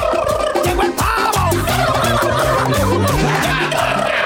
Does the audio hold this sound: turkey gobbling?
yes